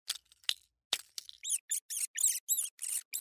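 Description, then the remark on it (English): A few sharp clicks and scratchy taps as a rodent escapes from a mousetrap, then a quick run of about seven high-pitched rodent squeaks in a rapid, even rhythm, fairly loud with no voices. “This is the sound of a rodent escaping from your mousetraps.”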